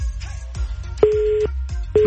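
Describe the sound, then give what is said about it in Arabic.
A telephone busy tone after a call drops: steady, fairly loud beeps about half a second long, separated by short silences, over a low background hum with no one speaking. “قطع الخط”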